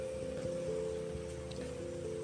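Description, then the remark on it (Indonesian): Steady rain patters softly with scattered drips just after a downpour in a village near Yogyakarta, Indonesia, while a low, constant mechanical hum runs underneath throughout; no voices are heard. “Kota Jogja baru aja diguyur hujan.”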